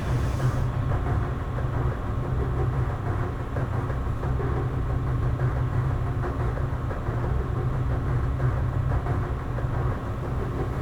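A train rolls steadily along the rails, a continuous deep rumble with rattling and metallic clatter layered over it, holding an even loudness throughout with no voices.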